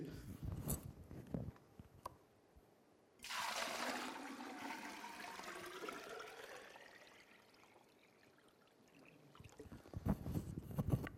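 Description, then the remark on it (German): Water pours steadily into a container for about six seconds, a loud rushing stream that gradually shifts in tone, with faint clatter just before and after. “Und es ist noch erstaunlich, wie viel Wasser das Platz hat so in unserem Leben, oder?”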